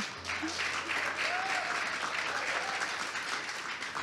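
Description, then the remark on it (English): Steady applause from a studio audience, many hands clapping in a dense, even wash that holds at full strength for several seconds, with faint whoops and a low hum beneath. “why don't we give a round of applause right now for the wonderful wonderful Brittany Caralsa”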